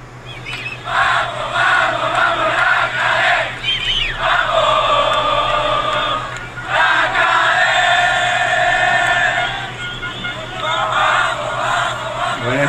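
A large crowd of Atlas football fans chants loudly in long, sustained rhythmic phrases after the match at the Glorieta de los Niños Héroes, each swelling for a few seconds before a brief dip, with cheering and shouts celebrating the victory throughout and a steady low hum underneath.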